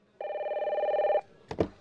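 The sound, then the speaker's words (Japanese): A telephone bell rings in one sustained, trilling burst lasting about a second, then a brief clunk follows, like the handset being picked up; no one speaks. “僕は正直、その電話が来るまで、彼女のことを忘れていた。”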